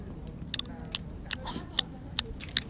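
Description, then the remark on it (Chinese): Someone at Xiangshan bites and chews mochi, biting loudly on purpose for an eating-broadcast recording, with moist, smacking mouth sounds, a string of sharp clicky bursts repeating irregularly over a few seconds, with no talking. “我们现在在象山， 我们正在吃马吉，”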